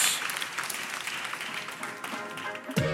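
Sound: audience applause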